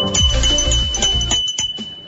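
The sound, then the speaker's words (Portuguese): A doorbell-like chime, the jingle of a Minas Gerais handicraft business, rings out in a quick series of bright tones over about two seconds, fairly loud, with a full, resonant low ring beneath and no voices. “Essa aqui é a campainha do artesanato mineiro”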